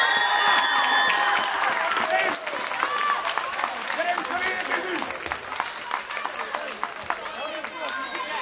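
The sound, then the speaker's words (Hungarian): An audience applauds steadily and loudly for several seconds, a dense wash of clapping with excited crowd voices and cheers mixed in, easing slightly after the first couple of seconds. “A, a taps után valahogy mindig előről kezdik.”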